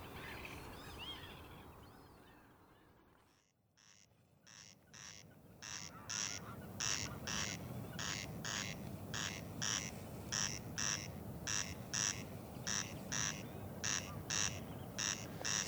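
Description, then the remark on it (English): A single corncrake calls loud from long grass and cow parsley at the edge of a field, its harsh, rasping double note repeating in a steady mechanical rhythm with its echo over a low rumbling background, after a few seconds of fainter birdsong and a brief lull. “So this is the corncrake.”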